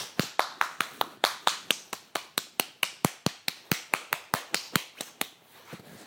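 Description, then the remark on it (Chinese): A whole class of children claps before a sports competition: steady, rapid clapping, about four or five sharp claps per second for roughly five seconds, even in rhythm and fairly loud, then it stops. No one speaks. “好，听听听听听，大家鼓掌很激烈。”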